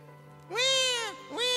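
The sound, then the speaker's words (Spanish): One of a pair of house cats lets out two drawn-out, wailing meows that sound much like a crying baby, the first long and the second shorter, fairly loud over a low steady hum. “Tenemos un par de gatos en la casa, uno de ellos llora como si fuera un bebé.”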